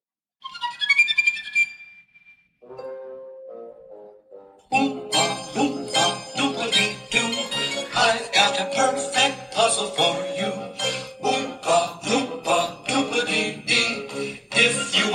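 A song plays through a small speaker: a tinkling, chime-like intro, then a few lower plucked notes, before a full, bouncy ensemble comes in steadily and fairly loud for the rest.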